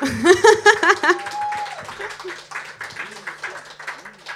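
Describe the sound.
A voice briefly at the start, then a concert audience breaks into steady applause to call a performer back to the stage, many hands clapping in a dense, continuous patter at moderate loudness to the end.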